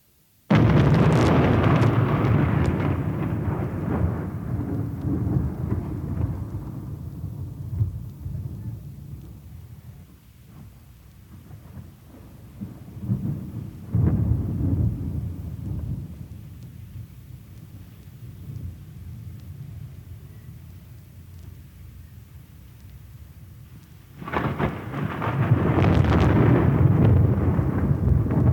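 Steady rain hisses throughout while deep rolls of thunder rumble in three loud waves, at the start, midway, and again near the end, with no voices.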